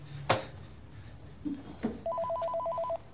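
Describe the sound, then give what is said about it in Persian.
A telephone rings with a rapid warbling trill, two alternating tones pulsing steadily for about a second, after a few brief knocks and clatters. Nobody speaks. “انتظار داری در غمبارترین شب زندگیم تلفن جواب بدم”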